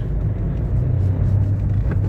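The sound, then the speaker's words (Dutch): Steady low engine drone and road rumble from inside a moving car on the drive to school, a constant deep hum that fills the whole stretch without any voices. “zoals je vast wel kan horen, zit ik eh, weer in de auto”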